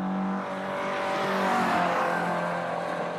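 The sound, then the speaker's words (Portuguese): A car engine roars past at speed, its steady whine swelling louder toward the middle and easing slightly as it goes by. No voices accompany it. “E a resposta correta é um carro a passar muito depressa, como era óbvio.”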